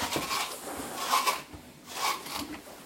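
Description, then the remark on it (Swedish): A brush being dragged over the coat of Trolle, a golden-brown fjord horse, grooming him in a stable before he is saddled: brisk, repeated strokes, about three or four scratchy, rasping swishes in a steady rhythm, moderately loud, with no talking. “Och denna gången så är det en guldbrun fjordhäst vid namn Trolle som ska ryktas innan han blir sadlad.”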